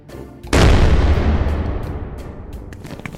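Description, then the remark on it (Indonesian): A loud firecracker blast from a rooftop erupts suddenly and rumbles away slowly, with several sharp smaller pops crackling scattered through the fading echo. “Eh, jancok sopo ini masang-masang petasan.”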